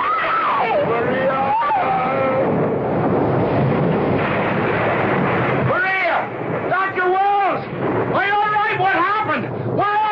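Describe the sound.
A loud, sustained rumble of thunder follows a lightning flash during a thunderstorm, filling the background with a heavy roar, while voices of people digging cry out and call over it toward the end.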